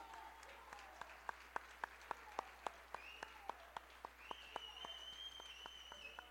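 An audience applauds the Lord Jesus, clapping together in a steady, even rhythm, sharp claps landing about five times a second, with faint high-pitched cries and voices rising behind the beat.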